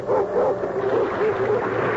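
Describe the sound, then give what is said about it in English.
Several dogs, including Hans and Gretel, bark and yip excitedly, overlapping in a dense, continuous, fairly loud clamor with no pauses across the short stretch. “the dogs! Call them off!”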